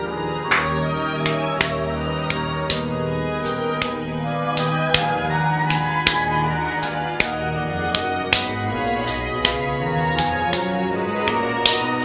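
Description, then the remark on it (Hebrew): Steady hand claps keep time over recorded piano music to find its tempo, landing roughly every two-thirds of a second in an even beat throughout. The claps are crisp and moderately loud. No one speaks. “איזה מהירות זה? בואו נמחא כפיים רגע.”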